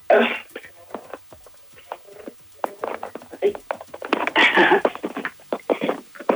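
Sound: cough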